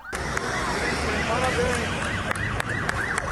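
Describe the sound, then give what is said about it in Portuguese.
Police car sirens wail in rising and falling sweeps as police cars pass along an avenue in Brazil after the end of the manhunt for Lázaro Barbosa, over a dense street din with voices of residents and shopkeepers mixed in, the repeated arcs of the siren growing clearer toward the end. “Nesta avenida, à medida em que os carros da polícia iam passando, moradores e comerciantes agradeciam o fim da caçada.”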